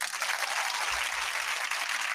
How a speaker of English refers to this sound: Everybody, let's give them a big round of applause.